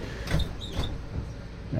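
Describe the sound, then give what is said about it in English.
Walt Disney World Express monorail doors slide shut with a couple of whooshing, hissing pushes and a faint high tone, set against a steady low rumble of the monorail interior. “Please stand clear of the doors.”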